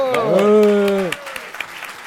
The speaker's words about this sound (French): Et là, vous m'applaudissez. Bravo